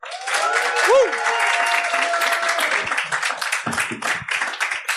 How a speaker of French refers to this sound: Veuillez faire un tonnerre d'applaudissements pour l'excellent PE